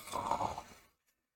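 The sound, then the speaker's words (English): A person imitates a snore with a single breathy, rasping exhale, mimicking a video game character who won't wake up, fairly loud, lasting under a second before it falls silent. “snoring his day away.”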